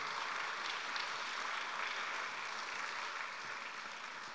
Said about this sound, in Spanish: Denle un buen aplauso al Señor, por favor, en esta noche.